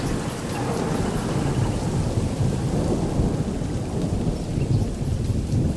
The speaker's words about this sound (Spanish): Ay, ay, pero no siempre son tan apacibles los sonidos. ¡Cuidado! ¡Se viene una tormenta!